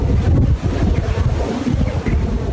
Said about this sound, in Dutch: Maar wat nou als er wel een windmolen in je achtertuin staat en je dit geluid